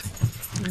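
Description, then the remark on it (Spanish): A dog whimpers happily in a brief, soft burst of short whiny noises, with no one speaking over it. “Y si nadie está disponible, eh, disculpen, ese es mi perro que está contento.”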